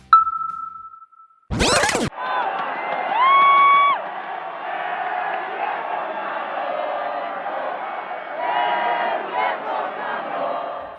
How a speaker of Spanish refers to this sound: con gritos de ¡El viejo sabroso! Más de 100.000 personas recibieron a Checo Pérez en las calles de su natal Guadalajara.